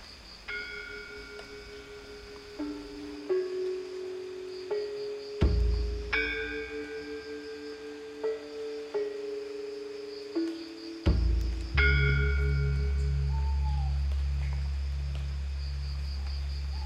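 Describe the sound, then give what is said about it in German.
Tropical rainforest ambience on Java: a steady high insect drone runs throughout, while ringing metallic bell-like tones strike a slow melody, with a deep sustained hum toward the end. “Der tropische Regenwald auf der Insel Java.”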